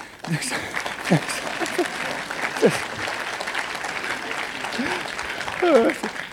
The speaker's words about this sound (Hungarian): Hát ilyen még sose történt, hogy, hogy tapsoltatok volna az elején. Köszönöm. De tényleg a végén se szoktatok, úgyhogy hát ne fárasztátok magatokat.